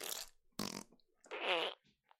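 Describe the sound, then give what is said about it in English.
A person blows mouth farts with air pockets at the top of the lip: a few short buzzy raspberry bursts, then a longer, louder flapping one, with no talking. “I I put the air pockets at the top of my lip.”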